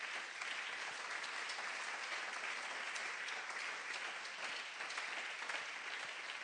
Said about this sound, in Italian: Forte questo applauso al Signore.